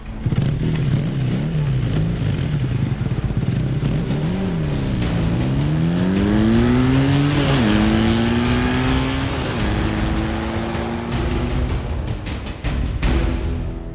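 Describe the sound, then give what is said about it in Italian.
A motorcycle engine revs hard and climbs through several gear shifts, its pitch rising and dropping with each change, loud throughout with no voices. “Va bene, ti raggiungo con la moto.”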